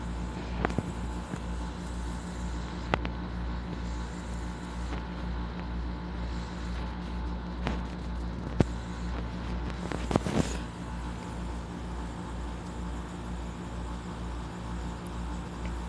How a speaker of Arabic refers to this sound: اليوم سمعت صوت المكيف أكثر من صوتك